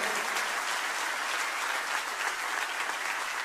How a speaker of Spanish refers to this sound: ¿Cuántos pueden dar un fuerte aplauso a Dios por la vida de Julián?